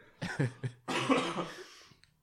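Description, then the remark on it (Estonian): A coughing fit: a few quick, sharp coughs followed by a longer, rougher, raspy cough that trails off, with no talking. “jumal praegu karistas sind selle eest, saatis sulle köha.”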